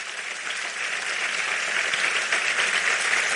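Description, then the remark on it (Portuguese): Sustained applause from a large crowd, a dense steady wash of many hands clapping at once, loud and continuous for the full few seconds with no voices standing out. “É para Jesus esse aplauso?”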